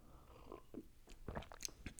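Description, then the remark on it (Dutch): Quiet mouth sounds of someone sipping coffee: a few soft slurps and swallows with small clicks, scattered unevenly over two seconds with no talking. “Ik moest even een slokje koffie drinken. Nog één slokje koffie.”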